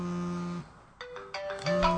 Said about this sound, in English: And the phone rings again.